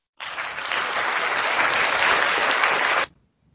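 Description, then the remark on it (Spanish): A burst of applause from a crowd, steady and fairly loud for about three seconds before cutting off abruptly, with no voices over it. “Aplausos, eh, aplausos, aplausos, aplausos.”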